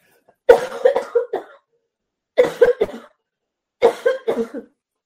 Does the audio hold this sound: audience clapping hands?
no